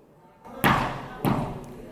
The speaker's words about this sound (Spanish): Esos son los golpes del Señor en el vidrio de la Asamblea Legislativa.